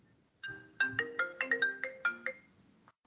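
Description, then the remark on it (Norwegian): A phone ringtone plays a quick melodic sequence of bright electronic tones, about ten notes in a lively rhythm, clear, with no one speaking over it. “Nei, det var meg. Jeg må sende en kjapp melding.”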